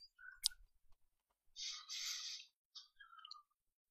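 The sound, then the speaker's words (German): Quiet computer keyboard typing into an Excel spreadsheet, with a sharp click, then a short burst of soft, rapid clattering and a few more scattered taps. No one speaks. “So, jetzt tippt er wieder in seine Excel-Tabelle.”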